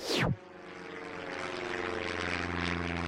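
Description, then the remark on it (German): A low-flying crop-spraying airplane roars overhead a few meters above soybean fields in Mexico, spraying the herbicide glyphosate; its propeller engine drones loudly and steadily after a brief sweeping whoosh at the start, and no one speaks. “Ein Flugzeug im Tiefflug, wenige Meter über mexikanischen Sojafeldern. Es versprüht Glyphosat, den wahrscheinlich bekanntesten Unkrautvernichter der Welt”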